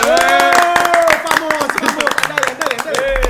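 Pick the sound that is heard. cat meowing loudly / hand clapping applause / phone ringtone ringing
hand clapping applause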